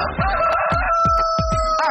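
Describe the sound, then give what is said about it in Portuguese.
A rooster crows in one long, drawn-out call in the opening of the Amanhecer Sonora morning show on Rádio Sonora FM 104.5 in Chapecó, Santa Catarina, heard over a steady thumping beat of music with no one speaking. “Ah, o amanhecer na Sonora começa muito antes do galo cantar”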